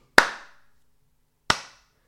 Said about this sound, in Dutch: Slow clap. Geleidelijk aan, iedereen begon mee te klappen met het publiek. En vandaar …, van de slow hand clap die het publiek moest doen, terwijl hij...